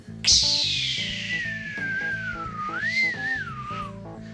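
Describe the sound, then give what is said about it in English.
A single long whistled tone imitating a baby eagle's cry, starting high and sharp, then sliding slowly downward with a wavering rise near the end, over a steady low background hum. “There's there's your eagle call, folks. It, it sounded sad, but the eagle had um, stomach problems.”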